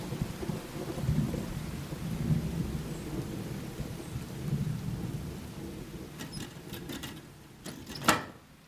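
Steady rain hisses over a deep, rolling rumble of thunder, with a sharp crack of thunder near the end; no voices, just the storm.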